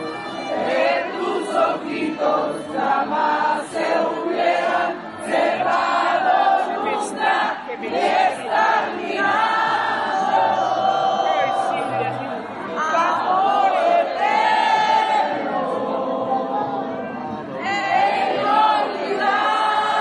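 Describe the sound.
A large crowd of fans sings a slow song together in unison, voices sustained and swelling loudly and steadily for the whole stretch, with a rough, massed choral texture.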